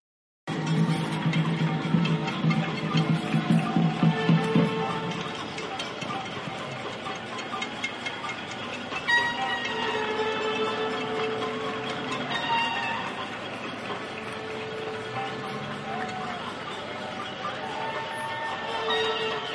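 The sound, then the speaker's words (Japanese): A steady, dense din of neighbors on balconies at the daily 7 p.m. cheer of thanks for medical and frontline workers, banging frying pans and pots, clapping and whistling, with vuvuzela-like blasts layered throughout, spread across a wide area and continuing unbroken. “感謝と激励の歓声をみんなであげるんですけど、うん、その音声をちょっと撮ってみたので聞いてみてください”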